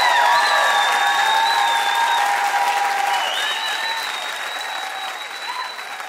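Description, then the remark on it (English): A large audience applauds George Takei steadily with scattered cheers and whistles over the clapping. The ovation stays full and loud before easing off slightly toward the end. “Let's hear it one more time for a special Jess.”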